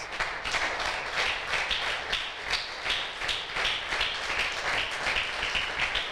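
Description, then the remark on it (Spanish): Steady applause from a crowd for young people, some back from a camp: dense overlapping claps with crisp individual hand strikes poking through, holding at an even, fairly loud level throughout with no voices. “Démosle un aplauso a estos jóvenes.”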